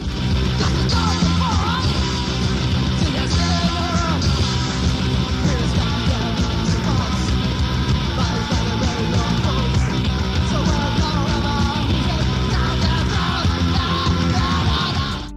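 Raw, loud Filipino punk rock from a debut album released in 1986, one of the first punk recordings in the Philippines, plays for the whole stretch: thick distorted guitars and pounding drums with shouted, yelling vocals, the dense wall of sound holding steady without a break.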